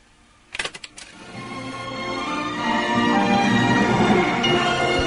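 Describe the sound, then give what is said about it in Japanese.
A few sharp plastic clicks as a cassette tape holding a recorded concert is handled and inserted into a player in a home room with a piano, followed by a steadily swelling wash of sound as playback of the piano performance with the Warsaw Symphony Orchestra, a Polish orchestra, seems to begin. “ピアノが置かれた自宅の部屋で自身が演奏したコンサートの模様が録音されたカセットテープを取り出す僕の演奏がこれワルシャワ交響楽団ですねポーランドのオーケストラなんですけど”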